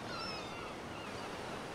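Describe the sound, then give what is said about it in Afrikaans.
Steady wash of surf rolling onto a beach, a continuous broad hiss of moving water at moderate volume with no distinct individual wave breaks and no voices. “En toe is Lottie op die strand saam met ouma.”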